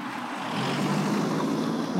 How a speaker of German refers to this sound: ein Auto.